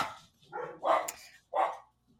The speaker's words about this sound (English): Excuse me, dogs.